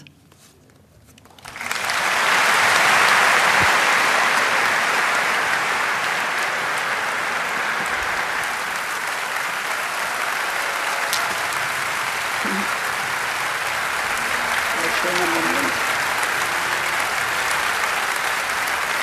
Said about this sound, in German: lasst Sie den langen Applaus und die Standing Ovation, die es gegeben hat, gerne auch nochmal erleben.